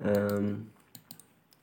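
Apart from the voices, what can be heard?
computer mouse clicking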